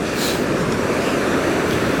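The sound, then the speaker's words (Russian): A steady, dense roar of Atlantic Ocean waves breaking on a shore, fairly loud and continuous, with faint hissing swells rising and fading and no voices. “Я надеюсь, вы уже слышите шум волн.”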